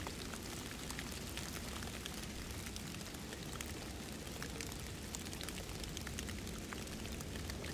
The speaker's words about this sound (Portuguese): E a chuva não para e meu corpo não esquenta com esse frio, com essa chuva.